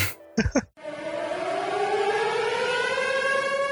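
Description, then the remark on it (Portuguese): A siren sound effect marking the start of a spoiler segment wails loudly and steadily with a slowly rising pitch. A brief burst of sound comes at the start, then the siren stays sustained and prominent throughout with no talking. “E agora vocês estão ouvindo aqui nossa sirenezinha, o que significa que vai começar o bloco com spoilers.”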